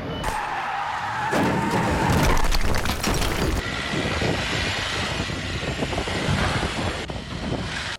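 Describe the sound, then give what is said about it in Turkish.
A vehicle slides and skids on a snow-covered, icy road, a steady loud scraping hiss lasting several seconds with engine rumble and wind buffeting the microphone, no speech. “Karla kaplanan, buz tutan yollarda ilerleyemeyen araçlar kaydı.”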